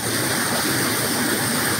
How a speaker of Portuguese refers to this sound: Esse é o sertão pernambucano, essa é a nossa querida Salgueiro descendo água com essas chuvas aí da, da noite, uma noite boa de chuva aqui no nosso sertão pernambucano.